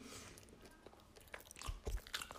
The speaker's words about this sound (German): Okay, kurzes ASMR, wie ich kaue. Du kaust nicht beim Müsli. nee, ich kann doch trotzdem kauen.